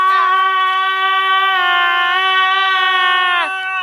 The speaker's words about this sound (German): Und jetzt schreien wir. Ah!